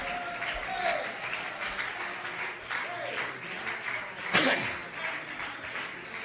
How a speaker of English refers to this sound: Clap your hands with all your might. Shout with all your might. Roar with all your might. Come on. Praise with all your might.